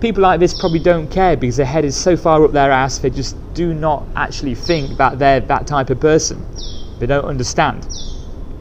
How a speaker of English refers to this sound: Oh, there's a nice bird tweeting in the background. I'm uh, underneath a temple now, just chilling out, so that's why. Uh, the bird was here first, so no problems.